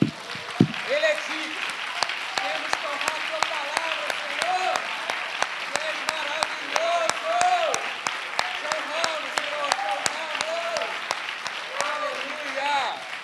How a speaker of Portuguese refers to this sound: Aleluia. Aplauda o Senhor, aplauda a palavra dele.